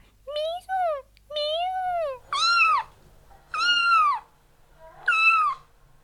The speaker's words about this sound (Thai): นี่คือเสียงของลูกแมวน้อย ที่กำลังส่งเสียงร้องเรียกแม่ค่ะ ซึ่งลูกแมวนั้นจะมีเสียงที่เล็กแล้วก็แหลมมากๆ เลย เสียงของลูกแมวจะสูงมาก ดังมากเลยค่ะ ลูกแมวจะร้องตอนที่ตัวเองต้องอยู่ตามลำพังแล้วก็จะร้องเรียกจนกว่าแม่จะมาหาค่ะ